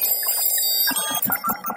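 A quick series of electronic beeps in varying tones, like buttons pressed on a calculator working out an inflation conversion, starting as a steady tone and then breaking into rapid short pulses, fairly loud.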